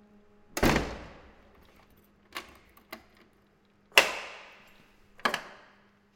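A heavy door of a bare holding cell for arrestees slams with a ringing metallic boom, followed by sharp clanks and clicks of the lock, then another loud slam and a final clunk. No one speaks.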